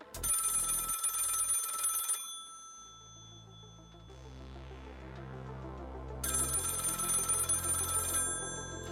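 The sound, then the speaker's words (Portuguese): A telephone bell rings loudly in two long, rattling bursts separated by a few seconds of quieter low hum, with no one speaking. “que é isso aqui? Funciona igual telefone?”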